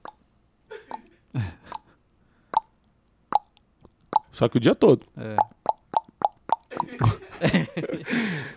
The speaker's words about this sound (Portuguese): Goteira pingando, não todos, né? Goteira pingando sem parar em dia de chuva.